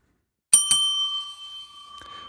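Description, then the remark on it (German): A small bell is struck twice in quick succession, giving a bright metallic ring with a long sustained tone that slowly fades, followed by a faint rattle near the end. “Bing, bing. Auch irgendwas drin. Die klingt auch nicht mehr so.”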